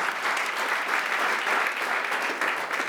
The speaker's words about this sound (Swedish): Kan vi applådera för alla roliga komiker som har varit här?